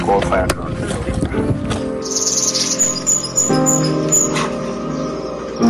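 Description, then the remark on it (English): Northern red bishop calls in Ghana, a run of buzzy, sizzling chirps and twitters repeating after a brief pause, with a voice talking underneath. “This is the um, northern red bishop.”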